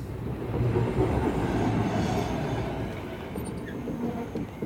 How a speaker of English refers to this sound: Here's our tram. All aboard.